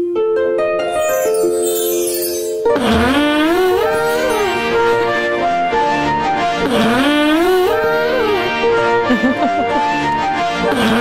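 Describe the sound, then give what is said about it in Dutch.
A short rising B-flat arpeggio of clean tones, then a man's loud, buzzy fart merges with it, its pitch wobbling up and down in a melodic pattern that repeats twice over the music. “Voeg die twee samen en dan krijg je dit.”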